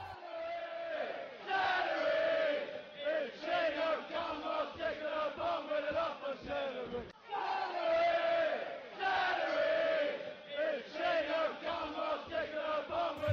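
A large football crowd sings the celery song, a rhythmic Chelsea terrace chant, in unison at a Chelsea match, loud and sustained, the melody repeating twice with a brief dip in the middle, echoing as if across a stadium.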